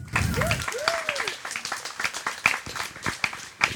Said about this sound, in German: Applaus und auf die Bühne.